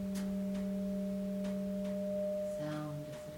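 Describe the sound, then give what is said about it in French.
A meditation bell rings on in a long, steady sustain, its layered pure tones humming evenly throughout, with a few faint soft rustles passing underneath and no one speaking. “L'idée ce n'est pas que la cloche sonne ou pas, uh, mais comment on va accueillir ça pas jugement.”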